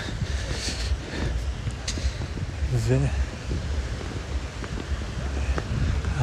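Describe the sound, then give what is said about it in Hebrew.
Very gentle sea waves lap softly at the shoreline of relatively calm water under a steady windy wash, with a brief faint voice in the background partway through. “והמים היום יחסית רגועים, אה, יש גלים מאוד מאוד עדינים בקצה.”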